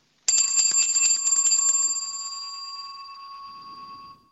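A cluster of small altar bells jingles rapidly and brightly for about two seconds during the consecration at Mass, then the shimmering ring lingers and slowly fades before cutting off. No voices are heard.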